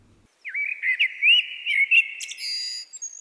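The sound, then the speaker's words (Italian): A blackbird sings a continuous run of clear, warbling whistles with quick chirpy flourishes, alone without any voices, lasting a few seconds, in a 400-square-metre vegetable garden where a pair of blackbirds has lived for several years. “In quest'orto c'è una coppia di merli che eh, ci vive stabilmente da diversi anni.”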